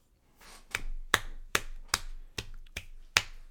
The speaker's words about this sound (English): That's my clap, not for Corey Brewer, but for uh, Kobe Beef on uh, Twitter uh, our, our buddy Doyle.